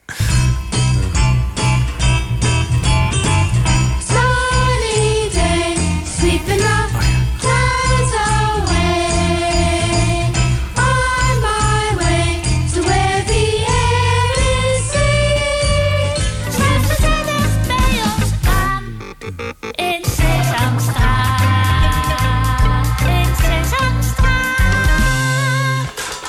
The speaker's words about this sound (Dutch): Ja, daar hoorden we natuurlijk de leader van Sesamstraat in het Amerikaanse origineel eerst en vervolgens in de Nederlandse versie.